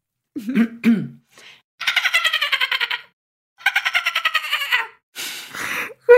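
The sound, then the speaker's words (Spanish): A person vocally imitates a dolphin over a Zoom call: a few rising, wavering squeals followed by two long bursts of rapid, buzzy clicking, loud, with a brief breathy rasp at the end. “Aquí viene el momento en el que hace ruidito de delfín”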